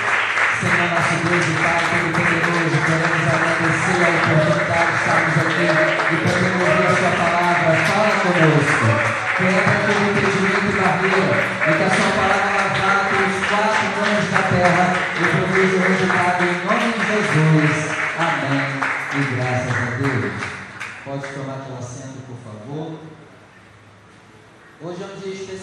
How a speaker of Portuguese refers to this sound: Eu peço que você feche seus olhos, desocupe as suas mãos e com muita alegria vamos dar uma linda salva de palmas à palavra do Senhor. Enquanto você aplaude, glorifica, exalta, vai dando glória.